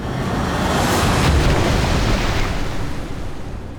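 Ocean waves surge against the shore in a loud, continuous roar of rushing water that swells to a peak early on and then slowly eases, with no voices.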